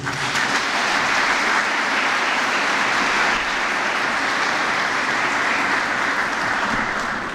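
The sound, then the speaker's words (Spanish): An audience at a congress breaks into steady, sustained applause for the person who staged the event, a dense wash of many hands clapping at an even loudness for several seconds with no voices over it. “se echó al hombro este Congreso y me parece que se ha ganado un aplauso de ustedes.”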